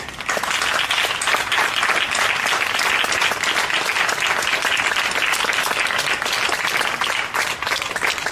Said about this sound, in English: And for that, as I take my seat, let's just give God a hand clap of praise.